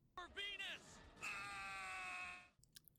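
A loud, raw human scream: a short rising yell, then a long sustained strained cry held for over a second before cutting off, followed by faint background noise.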